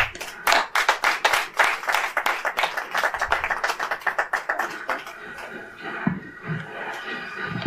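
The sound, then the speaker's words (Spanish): An audience applauds to welcome a guest speaker, a dense patter of many hands clapping at a brisk, steady rate that gradually thins and softens toward the end, with no voices. “cuando quieras, por favor, un aplauso para él.”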